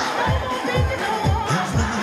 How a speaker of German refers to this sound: Hier ist ein junger Sänger aus Memphis, Tennessee. Bitte einen herzlichen Hayride-Applaus.